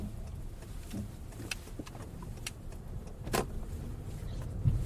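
Steady low engine and road rumble fills a car cabin while driving on a work trip, with a few faint clicks and rattles scattered through and no one talking.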